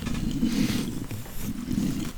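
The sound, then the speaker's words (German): A person voices a low, rumbling growl imitating a giant stone creature, gritty and grinding like stones rubbing together, sustained for about two seconds with two swelling pulses, fairly loud. “Und das, das klingt so, als würden sein, als wenn er versucht, also es klingt, als würde seine Geräusche von sich geben, indem Steine aufeinander reiben.”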